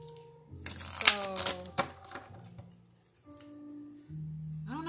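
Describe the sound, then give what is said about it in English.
A deck of angel reading cards is shuffled in a quick, crisp riffle of rapid flutters, followed by softer scattered rustles, with faint steady tones humming in the background. “Okay, I'm doing a um I'm shuffling my angel reading cards.”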